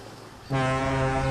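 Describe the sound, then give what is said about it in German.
After a brief stretch of soft background, a ship's horn at sea blares in a single loud, steady, low blast that holds to the end with rich harmonic buzz. “Sieh mal, Kai, ein Schiff.”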